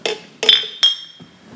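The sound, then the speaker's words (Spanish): Glasses clink together three times in quick succession in a toast among friends, each tap bright with a short ringing tone that fades, followed by a faint softer knock and no voices. “Perfecto, pues primero que nada, salud amigos.”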